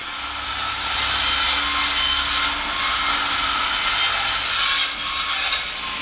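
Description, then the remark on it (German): A jigsaw cuts marked recesses out of wood during a woodworking session with children, a steady, buzzing rasp that holds for about six seconds, loud and continuous with slight wavering in intensity. No one speaks. “Die Aussparungen, die dann da auch noch äh, mit der Stichsäge ausgeschnitten werden müssen jetzt geht bestimmt gleich eine Maschine los.”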